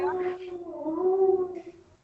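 A dog howls in one long, drawn-out note lasting about two seconds, wavering slightly in pitch and fading at the end. It is clear, with no talking.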